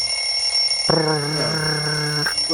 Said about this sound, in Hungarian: Csörgés van. Csörög a telefon.